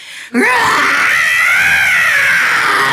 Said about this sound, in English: She screams as you get close to the cradle and you are faced with the horrifying image of what looks like a woman in a tattered nursemaid's outfit,